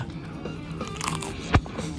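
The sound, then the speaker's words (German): A single bite into a bratwurst dipped in mustard, a brief sharp snap of the casing standing out against quiet background hum, with faint mouth sounds around it. “Die erste Bratwurst des Tages. Ich tauche sie jetzt gerade in Senf und jetzt hört ihr, wie ich reinbeiß.”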